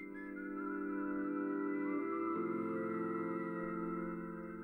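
A soft whistled melody floats over slow, sustained melancholic chords and a mellotron-like wash, the music swelling gently and holding steady with no voices.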